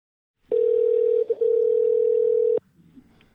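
A single steady telephone ringback tone from a phone call being placed sounds for about two seconds with a brief stutter near the middle, loud, then cuts off abruptly, leaving faint background noise.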